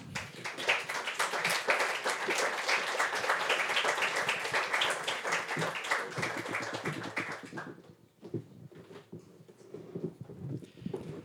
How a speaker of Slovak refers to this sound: Všetky tri sú z východu a ich teda poprosím, aj prišli dopredu, vás poprosím o potlesk a potom ich predstavíme.